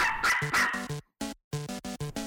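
A dog barks in a quick, excited series of short yaps, about a dozen in all with a brief pause partway through, fairly loud with no one talking.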